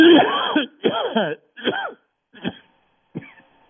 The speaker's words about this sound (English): I need a cough button. I don't have one.